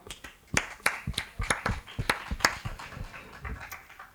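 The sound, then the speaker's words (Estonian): Scattered applause from a small audience welcoming the first panelist of a panel discussion: sharp, uneven handclaps overlapping at a brisk pace for a few seconds, moderately loud, with no voices over them. “saame aplausiga siis ka esimese panelisti Juuvist siia tervitada”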